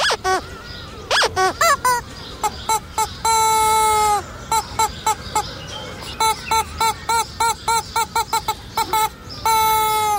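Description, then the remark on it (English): A duck quacks loudly and insistently in a rapid string of nasal, honking calls with a few longer drawn-out quacks mixed in, no voices present. “She was fast enough to catch a duck, but only chased it to hear it quack.”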